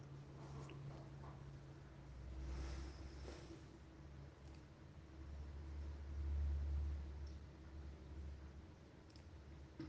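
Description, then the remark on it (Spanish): A steady, low engine rumble with a constant hum and rushing road-and-wind noise, swelling slightly at moments, as a guide drives a car on a tour through a zoo. No one speaks. “Él se coloca al volante. Emprendemos la marcha.”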